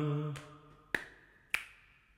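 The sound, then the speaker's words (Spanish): Crisp finger snaps at an even, steady pulse as part of a body percussion pattern of thighs, claps, snaps and head, two sharp ones standing out after a softer first, each ringing out briefly. A low hummed tone fades at the very start. “Eh, muslos, palmas, chasqueo, cabeza.”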